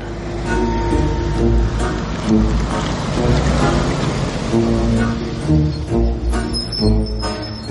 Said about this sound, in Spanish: Entra el camión.